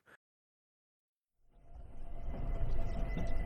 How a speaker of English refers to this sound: Is the train moving now? Oh, it is.